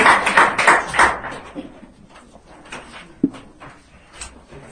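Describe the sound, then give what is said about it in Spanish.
An audience at a church service gives loud applause to the Lord: a burst of dense clapping that thins after a second into scattered, softer claps and fades away. “Dile fuertes palmas al Señor, tome asiento.”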